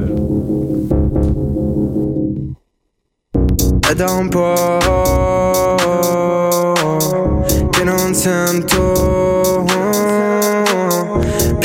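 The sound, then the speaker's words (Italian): A loud song with a sung vocal over a full backing of instruments and steady beat plays throughout, cutting to silence for a moment near the start before resuming. “Ah, ascoltiamo la canzone per piacere.”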